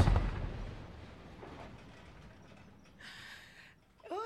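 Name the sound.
distant explosion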